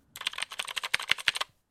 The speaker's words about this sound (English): Um, Bluetooth mechanical keyboard, and it's adorable. It's this. It's beautiful. Um, I I want it just because it's so pretty. It is, and, and I've got it here. It is really cool. It is a mechanical keyboard. It sounds like this.